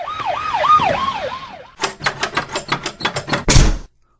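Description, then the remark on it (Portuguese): A fire engine siren wails in fast rising-and-falling sweeps for under two seconds, then cuts off into a run of rapid, evenly spaced clattering bursts ending in one louder crash. “Os bombeiros foram chamados.”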